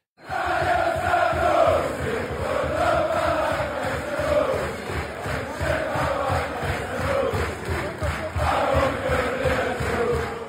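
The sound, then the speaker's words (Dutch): A large crowd of football supporters sings a chant in unison for player Ryan Sanusi, with lines about curly hair and a wife, a loud, sustained massed melody with a steady rhythmic pulse that rises and falls over about ten seconds. “maar ze hebben daar dus een variant voor Ryan Sanusi op gemaakt en die klinkt als volgt.”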